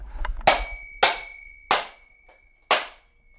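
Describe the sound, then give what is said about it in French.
A small hammer strikes a mechanical alarm clock four times, breaking it into two parts, each sharp metallic crack followed by a bright, ringing bell tone that lingers between blows. No one speaks. “Grâce à ce petit marteau, nous voici avec deux temps.”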